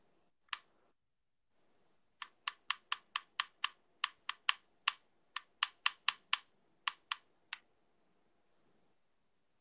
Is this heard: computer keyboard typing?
yes